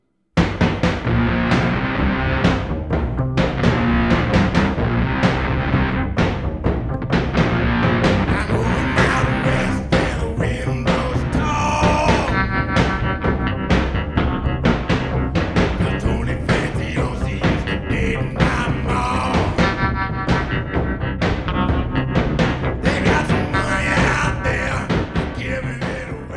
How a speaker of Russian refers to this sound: В сцене в баре звучит громогласная песня Тома Уэйтса